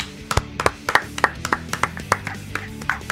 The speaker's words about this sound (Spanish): Aplausos, muchachos.